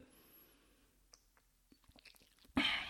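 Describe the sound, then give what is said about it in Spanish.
A quiet sip of 1800 añejo tequila from a glass: soft lip and mouth clicks and a brief swallow, ending in a sudden loud, breathy exhale after the drink. “Déjenme, le doy un traguito aquí a mi tequila.”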